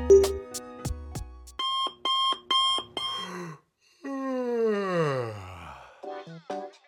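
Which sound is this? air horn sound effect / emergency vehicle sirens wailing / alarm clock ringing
alarm clock ringing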